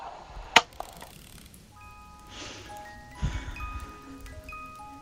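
A sharp click and some rustling handling noise, then a music box with a small turning ballerina starts up, its thin, bell-like plucked notes ringing out one after another in a slow, delicate tune, fairly quiet.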